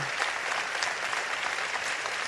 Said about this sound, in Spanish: Ovación del público y toda la orquesta de pie.